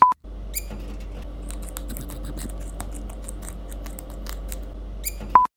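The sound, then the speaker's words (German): Short, high-pitched animal squeaks and chirps come in scattered bursts over a steady low hum, with a brief electronic beep at the very start and end. “Das war so ein süßes Piepsen.”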